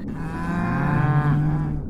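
A single cow moos loudly, one long, steady, low bellow held for about two seconds with no voices around it.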